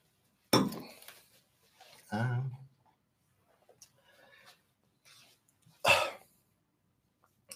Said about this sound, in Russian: сейчас я воды хлебану.